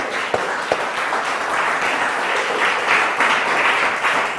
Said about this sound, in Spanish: Denle un aplauso gigante a Dios esta mañana.